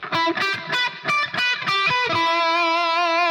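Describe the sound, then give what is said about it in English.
A distorted electric guitar plays over an E minor chord (notes E, G and B), a quick run of picked notes, then settles into a long sustained note, loud with no voices. “So if I was in this situation of playing an E minor and I've got the notes E, G, and B, and I know where those notes are because I've been building my arpeggios, which we talk about in the course of.”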